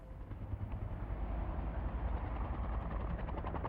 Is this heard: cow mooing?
no